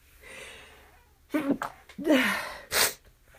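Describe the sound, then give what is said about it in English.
A person with allergies sneezes during a sneezing attack, a drawn-out voiced build-up and gasp leading into a loud, explosive burst, followed by another sharp sneeze, with faint background noise. “I'm just got a freaking sneezing attack, and I just vacuumed my goddamn rug, so I don't know what's going on.”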